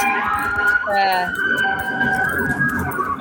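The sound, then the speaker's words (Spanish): A police siren wails loudly and steadily from a passing patrol car, its tone sliding as it goes by, with people talking over it. “Pasó la patrulla por aquí.”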